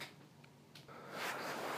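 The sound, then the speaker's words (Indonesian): Crinkly plastic rustling, starting with a few soft crackles and swelling into a louder, continuous scrunching toward the end, with no voices. “berisik banget sih tuh plastik”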